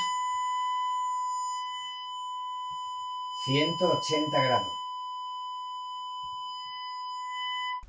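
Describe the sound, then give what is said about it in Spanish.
A steady electronic test tone, built from several pure pitches, holds unbroken for the whole stretch at moderate level, played at zero degrees to a Rode microphone during a microphone test, while a man briefly speaks over it partway through. “En este caso se puede percibir perfectamente el comportamiento impresionante, magnífico que tiene el Rode respecto al sonido tanto de voz como de el sonido que he puesto de prueba.”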